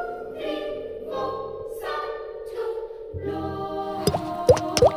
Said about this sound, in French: Tu vas faire avec ta bouche ça Bah non c'est la goutte d'eau